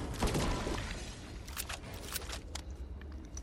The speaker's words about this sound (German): Oh, Schüsse, Schüsse, Schüsse.